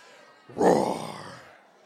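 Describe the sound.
Voices imitate a lion's roar in one loud, throaty burst that swells quickly, holds for about a second, then trails off into murmuring.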